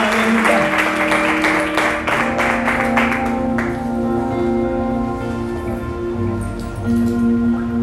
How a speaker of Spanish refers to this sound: Y le dan un fuerte aplauso a nuestro Dios y se van poniendo sobre sus pies en esta mañana.